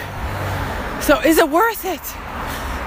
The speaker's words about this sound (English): You can hear all the cars going by me now.